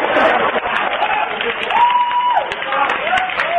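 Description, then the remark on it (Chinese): Steady, dense applause from an audience, cheering on someone going to the toilet, fills the whole stretch at a fairly loud, even level, with a few voices calling out over the clapping. “来，掌声鼓励一下，嗯，去。”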